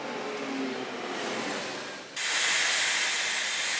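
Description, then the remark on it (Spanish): Steam hisses steadily from lidded containers of harvested lavandin that act as huge pressure cookers at a lavender distillery, the lavandin heated to high temperatures; a broad continuous rush that dips briefly, then bursts back louder and brighter, sustained, with no voices. “directamente en estos contenedores para ir de inmediato a la destilería, se pone una tapa sobre los contenedores que se vuelven entonces unas enormes ollas a presión.”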